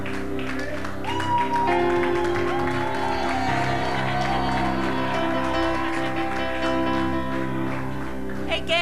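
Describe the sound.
An audience applauding steadily for several seconds, the clapping blending with sustained musical tones and a murmur of voices underneath, staying loud and even throughout.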